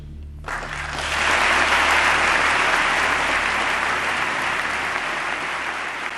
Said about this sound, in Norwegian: Og han får massiv applaus for denne talen, eh, der begge de store partiene i USA er egentlig måte, helt enig i det han sier,